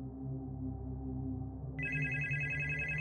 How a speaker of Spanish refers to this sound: El teléfono suena a menudo.